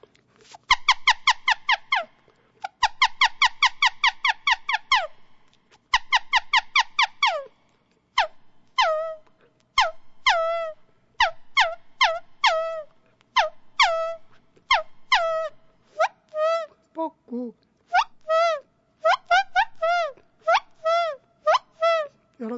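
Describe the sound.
A Korean leaf whistle (pulpiri) mimics birdsong: rapid churring trills imitating a nightjar (ssokdoksae) give way to repeated, pitch-bending two-note calls imitating a cuckoo (jeopdongsae), loud and alone with no talking.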